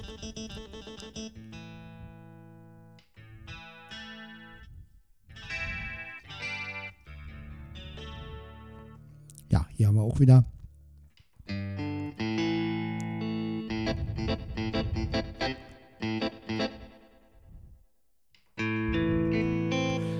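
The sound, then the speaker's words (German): Steel-string jazz guitar plays a series of short melodic phrases and chords, with brief pauses between passages, a sharper percussive flourish midway, and no one talking. “Das sind die ganzen Jazzgitarren.”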